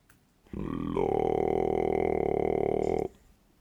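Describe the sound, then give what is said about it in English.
A single sustained, extremely low vocal fry growl at about 30 hertz lasting a couple of seconds, loud, its rough buzz made of audibly separate rattling pulses, starting abruptly and cutting off cleanly. “Exactly, it gets to the point down there where you can hear the individual vibrations.”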